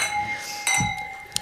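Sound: glasses clinking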